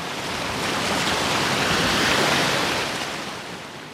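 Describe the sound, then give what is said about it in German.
A wave washes onto a beach, its broad hiss of surf swelling to a peak and then receding, steady with no voices. “Urlaub für die Ohren heute. Wer sehnt sich nicht nach Sonne, Strand und Meer”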